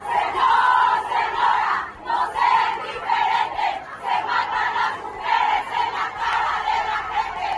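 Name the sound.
protest crowd chanting slogans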